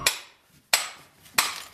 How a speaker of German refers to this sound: Brocken für Brocken musste das Gestein aus dem Berg geschlagen werden. Sie hören jetzt die Arbeit mit Schlegel und Eisen, also mit diesem Hammer und dem Meißel